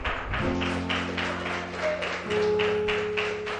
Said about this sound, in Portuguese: Quem pode aplaudir a Jesus por essa palavra?